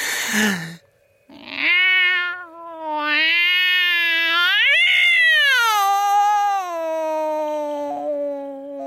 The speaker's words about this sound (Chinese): 猫，仿佛是为了验证我的想法，这毛烘烘的东西发出了一个刺耳的、犹如小孩哭泣一般的声音。